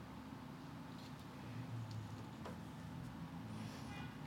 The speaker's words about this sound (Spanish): mientras pasa el carro.